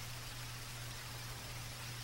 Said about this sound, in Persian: از هوای ابری صبح بگیر تا نم نم باران عصر